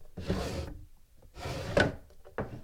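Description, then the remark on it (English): A drawer of an old wooden desk with flaking paint slides open with a dry scraping rub, then is pushed shut with a short knock, followed by a quieter slide near the end. Fairly quiet, no talking. “I just opened a drawer and you listened to it.”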